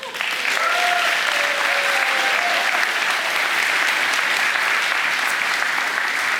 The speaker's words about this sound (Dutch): Een applaus, dames en heren, voor Miss Volendam